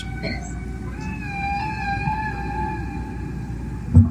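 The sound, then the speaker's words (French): Long, drawn-out whale song: a sustained, slowly wavering tonal cry over a low, steady rumble, rising in from faint squeaks and holding for a few seconds, with no talking. “C'est le chant des baleines, hein,”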